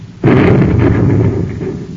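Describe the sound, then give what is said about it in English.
A sudden, heavy explosion of a cosmic torpedo off the port side of a private space cruiser bursts in and rolls on as a loud, deep rumbling roar that slowly fades; no voices. “It's a cosmic torpedo right off our port side.”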